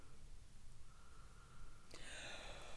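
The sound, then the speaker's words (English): A big yawn that rises into a thin, squeaky whine near the end, fairly quiet against soft background noise, with no talking. “Oh, big yawn. That means it's time to go.”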